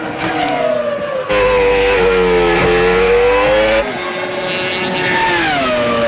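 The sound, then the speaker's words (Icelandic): A Formula 1 race car screams past at speed during qualifying for the Brazilian Grand Prix, its high engine whine rising and falling in pitch with a steady harmonic roar, loud throughout with no voices. “ráslínunni fyrir Brasilíu kappaksturinn í Formúlu 1 þegar kapparnir óku í tímatökunum í dag.”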